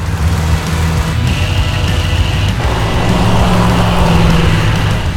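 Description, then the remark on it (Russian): A 1971 Ford Mustang Mach 1 on the move, its engine a loud, steady low drone with rumbling harmonics over constant road and wind noise for several seconds. “И какая же разница на ходу, это уже автомобиль.”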